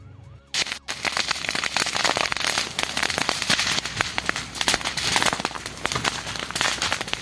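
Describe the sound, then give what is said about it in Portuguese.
Loud crackling of burning vegetation at Macaraú as firefighters fight the flames, a dense continuous stream of sharp pops and snaps that starts abruptly after a brief quiet moment and roars on steadily, with no voices. “Sim, pessoal, estamos aqui fazendo combate aqui às chamas aqui no Macaraú, né? Como vocês podem ver, é bastante fogo.”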